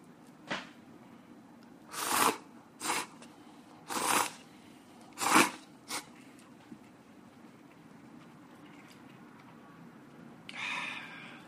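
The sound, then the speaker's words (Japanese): Chewing and eating a hot, steaming, garlic-heavy dish in a studio, with a handful of moist, crunchy bites coming in irregular bursts, then a softer rustle at the end. Nobody speaks. “じゃもっとさ咀嚼ももっと近くで飲み込む音ももう聞かしとってこのさ噛んでる音ってさどうなんやろな気持ち悪ないんかな”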